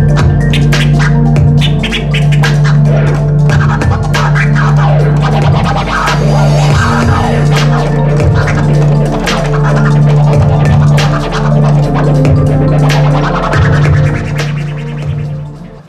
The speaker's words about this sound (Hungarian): akkor ez a scratch, ugye ez mindenki ismeri nagyjából